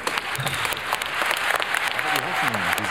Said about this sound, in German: Tosender Applaus zum Konferenzauftakt.